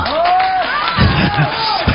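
A crowd applauds and cheers steadily, a dense wash of clapping with rising and falling shouts or whistles over it and a few heavier thumps near the end.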